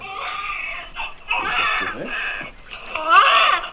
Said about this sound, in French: notre bébé va bien, il pleure, il respire, il a une bonne coloration.